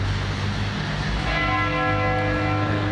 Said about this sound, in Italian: Mannaccia le campane.